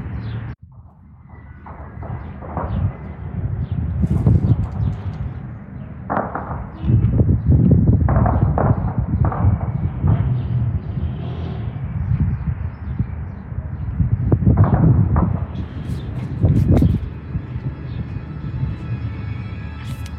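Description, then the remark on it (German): Gunfire and explosions in Qamishli, heard from a hotel rooftop: irregular sharp cracks and heavy rumbling booms scattered across a steady low background, with no voices, the bursts coming in uneven clusters. “Während es im Hintergrund schießt und rumst,”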